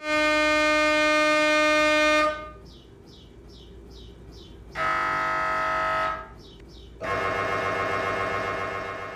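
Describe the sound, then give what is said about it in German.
An MRI scanner runs loudly, blaring harsh buzzing tones in three long blocks, with softer rhythmic chirping pulses in the pauses between them; no one speaks. “Ja, das ist der furchtbare Sound der Magnetresonanztomographie in die Röhre schieben, sagt man ja auch.”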